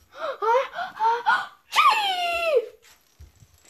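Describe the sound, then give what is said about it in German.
A voice acts out a coughing fit: four quick, rasping hacks in a row, then one long strained wheeze that trails off. It is fairly loud, with no talk. “Aber entdeckte, auf einmal entdeckte er neben sich, er bekam einen sehr schlimmen Hustreiz.”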